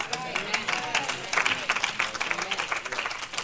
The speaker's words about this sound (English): I got to move over this side. Amen. They clap me.